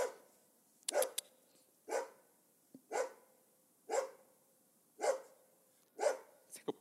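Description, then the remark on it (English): A dog barks over and over in a steady rhythm, about seven sharp barks spaced roughly a second apart, clear with little else around them. “I'm sorry about the dog.”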